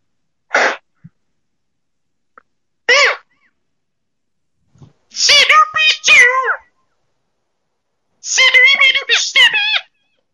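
Someone speaks through a mouth whistle of the kind puppeteers use behind the curtain to voice puppets, making squeaky, buzzy, warbling voice-like tones: two short bursts, then two longer garbled phrases, fairly loud, with no ordinary speech.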